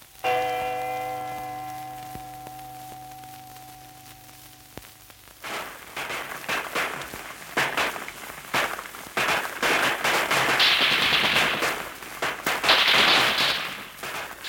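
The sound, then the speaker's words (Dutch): A sustained ringing tone fades out, then rifle shots, grenade explosions and rattling machine gun fire erupt in dense, irregular bursts, some sharp, building into a continuous loud crackle: a night uprising at 1 a.m. on 5–6 April, with Georgians and Germans fighting in barracks and bunkers on Texel. “Geweren knallen, handgranaten ontploffen en mitrailleurs ratelen.”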